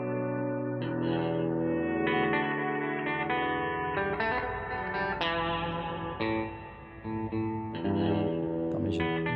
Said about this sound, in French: Donc, il y a la Golden Reverberator, pédale de reverb. Ouais. C'est ça. Elle est belle.